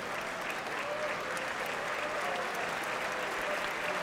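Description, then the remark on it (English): A crowd applauds steadily as first lady Melania Trump walks into the building, everyone standing up and clapping for her. The applause is a dense, even patter of many hands clapping at a constant moderate level for the full four seconds, with no voices rising above it. “People clapping for her, of course.”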